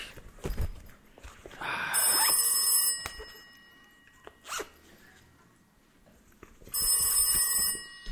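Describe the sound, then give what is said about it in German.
A mobile phone ringtone chimes in two short bursts, a few seconds apart, from inside a backpack, amid rustling and a zipper being pulled as someone rummages through the backpack. No one speaks. “ist denn jetzt das scheiß Handy? Ah, wer ruft mich denn jetzt hier an? Scheiße, mir im Rucksack.”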